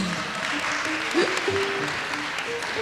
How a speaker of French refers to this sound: on va vous demander une série d'applaudissements pour cette première émission de La Foule à Poule